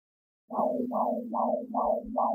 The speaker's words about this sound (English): All right, the sound of that heartbeat means it's time for this week's segment of Birth and Up Babies.